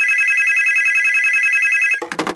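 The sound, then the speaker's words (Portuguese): The Big Fone telephone rings loudly with a steady, bright electronic trill for about two seconds, then cuts off into a brief burst of clattering noise. “medo, hein, do meu telefone tocar”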